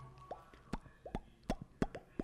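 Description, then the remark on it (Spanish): A series of about six wet lip pops made by a person doing a fish mouth, each with a hollow rising tone, repeating at a steady, unhurried pace, with no talking. “Estoy haciendo boca de pez.”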